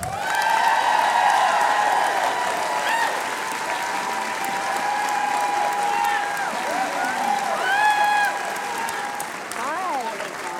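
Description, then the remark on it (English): An audience claps steadily and loudly for about ten seconds to welcome an author onstage, a dense unbroken wash of applause with faint tonal sounds running underneath and a few brief calls rising out of it. “Please give a very warm welcome”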